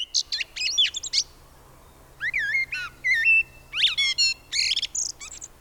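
A common blackbird sings, a run of fluting, warbling phrases broken by short pauses, with rich whistles and higher twittering notes, heard alone with no voices.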